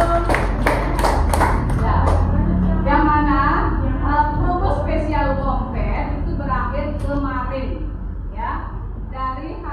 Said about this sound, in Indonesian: Tepuk tangan dulu.